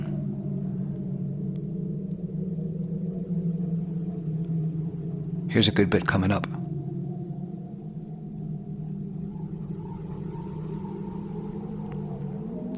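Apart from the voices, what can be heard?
wind blowing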